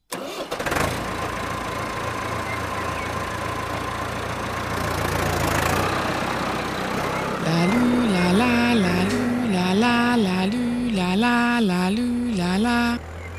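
A wagon rolls past with a steady, loud engine-like rumble, joined halfway through by a warbling, rising-and-falling siren tone repeating in quick cycles. No one speaks.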